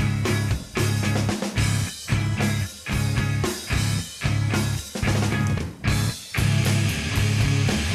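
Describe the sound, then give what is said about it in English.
A loud, dense rock song with a pounding bass line driving repeated phrases, the full band surging in bursts separated by brief near-silent breaks. No voices talking. “Just like fucking bass line, man, just hammering that bass.”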